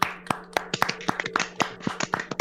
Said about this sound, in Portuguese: Uma salva de palmas, vamos Uma fazer uma salva de palmas, uma salva de palmas.